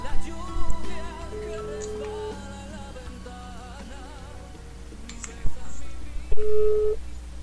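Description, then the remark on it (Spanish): A phone line rings out as the Friends Connection Digital program calls a listener live on air: two long, steady ringback tones separated by a pause of several seconds, clearly audible over busy background music, with no one talking. “chicos, vamos a marcarle a Octavio, vamos a escuchar.”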